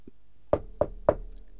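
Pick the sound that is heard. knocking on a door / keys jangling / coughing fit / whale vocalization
knocking on a door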